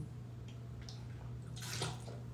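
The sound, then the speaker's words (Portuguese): Someone takes a brief wet sip of water from a glass and swallows, lasting about half a second, heard over a steady low electrical hum with no talking. “Pera um pouquinho, de tomar uma água aqui.”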